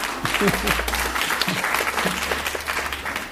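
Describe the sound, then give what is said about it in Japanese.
An audience breaks into sustained applause, a dense wash of many hands clapping steadily for several seconds, with a few faint voices and laughter mixed in underneath; those who failed a lot the previous week clap loudly as asked. “先週はたくさん失敗したという方は大きな拍手をしてください”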